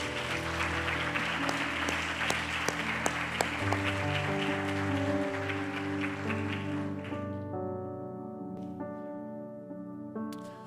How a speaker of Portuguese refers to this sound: Se você quer que essa palavra pode falar com você, você pode aplaudir o Senhor, começar a aplaudir.